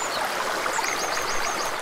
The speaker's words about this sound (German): So klingt der Bodensee bei Lindau im Süden Bayerns.